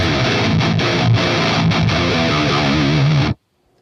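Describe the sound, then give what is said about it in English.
Loud, heavily distorted electric guitar played through a drive pedal plays a thick, saturated riff with a few brief choppy breaks, sustaining for about three seconds before cutting off abruptly into silence. “Um, you can make it even dirtier.”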